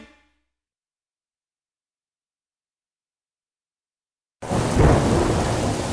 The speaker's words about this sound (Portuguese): Nossa, amor, essa tempestade horrível e você aí nessa calmaria.